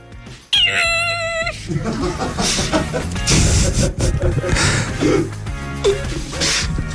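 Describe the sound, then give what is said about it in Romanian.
A single cat meow rings out clearly near the start, followed by a dense, busy wash of sound that carries on steadily to the end. “O pisică.”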